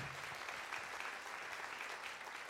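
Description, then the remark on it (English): A group of people clapping in a steady, dense wash of applause that holds at an even level for a couple of seconds, with no voices breaking through. “Round of applause, guys.”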